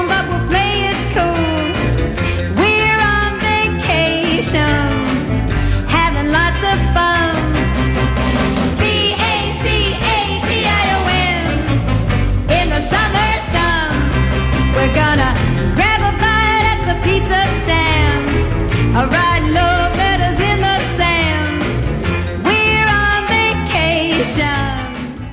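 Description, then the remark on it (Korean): A lively 1960s American pop song, very popular with young people in Korea in the early 1970s, plays loud and steady for the whole stretch, with a sung lead vocal over a full band backing and no one talking over it. “70년대 초 우리나라 젊은이들한테 굉장히 인기를 누렸던 팝송 하나 소개해드리고 싶어요.”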